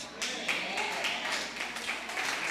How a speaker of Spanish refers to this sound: No, pero ese aplauso como que le dijeron, ay, tómate una Coca-Cola.